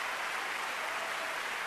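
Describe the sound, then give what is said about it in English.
A large crowd, 10,942 hands, applauds in a dense, steady wash of clapping that never breaks, with no voices standing out. “This is the sound of 10,942 hands showing appreciation.”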